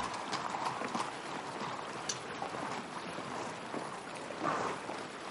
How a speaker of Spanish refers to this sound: detiene su caballo y ambos desmontan.